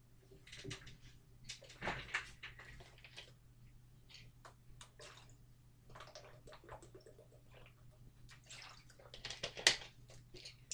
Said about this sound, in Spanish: Voy a beber agua y ya, y ya pasamos con ello.